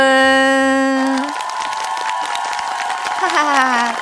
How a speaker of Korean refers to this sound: 저는 제1회 볼륨 어워즈의 진행과 시상, 박수와 함성, 리액션과 주접을 맡은